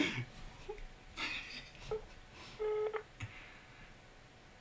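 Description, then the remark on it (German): Several short electronic keypad tones beep one after another at an uneven pace as a phone number is dialed to call a friend, with a longer tone near the end, clear. “Boah, wen soll ich denn anrufen?”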